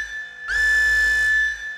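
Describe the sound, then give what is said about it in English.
A siren-like electronic tone sounds alone: one loud, steady, high-pitched note that slides up briefly at its onset, holds for about a second, then cuts off. “Okay, so what's that siren you hear?”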